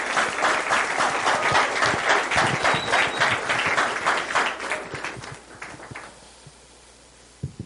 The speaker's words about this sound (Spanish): Un fuerte aplauso